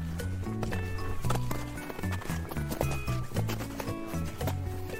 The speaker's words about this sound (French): Là, c'est quand je suis sur le glacier de la Girose, l'une des plus grandes calottes des Alpes du Sud. Quand on s'enfonce avec les crampons, c'est comme marcher dans de la granita.